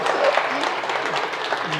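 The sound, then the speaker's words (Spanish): Steady applause from a group, a dense wash of clapping at constant loudness for about two seconds, with faint voices mixed underneath. “Eh, eh, un aplauso.”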